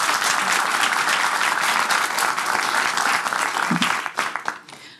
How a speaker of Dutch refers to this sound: Ik wil je wel heel erg bedanken voor je komst. En ehm, nou ja, dames en heren, graag een heel warm applaus natuurlijk.